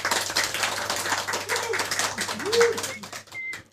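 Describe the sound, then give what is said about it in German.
A crowd applauding in a market square, a dense, steady patter of many hands clapping for a few seconds, with a couple of brief cooing or whistled tones rising over it. “Wieder klatschen alle auf dem Marktplatz.”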